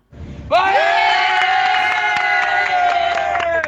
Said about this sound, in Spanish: nos enviaban también este audio que están un poquito de fiesta